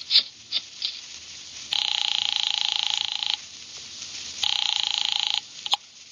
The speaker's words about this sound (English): I drove down to the document research laboratory on Vanderbilt and got such a shock that I grabbed the office phone and dialed Wolfe at once.